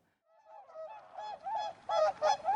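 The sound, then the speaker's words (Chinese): A flock of swans flying overhead honk in a string of loud, nasal calls, overlapping and growing stronger toward the end, with a faint rushing wash underneath. “这时，王子看见成群结队的天鹅从头顶飞过，优雅的天鹅让王子看得目不转睛。”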